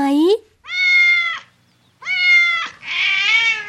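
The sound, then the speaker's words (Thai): A cat meows three times, loud drawn-out cries with short pauses between them, the last one wavering and longer. “เสียใจเสียใจร้องไห้ไปหาแมวเหมียว กัดหนูหางเรียวให้หน่อยได้ไหม”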